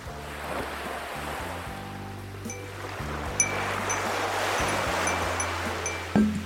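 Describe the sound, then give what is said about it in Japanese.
Ocean waves rush and wash steadily onto the shore, a continuous swelling roar with no voices, over a faint low droning hum in the background. “僕地元が海やから波の音かな、海の波の音”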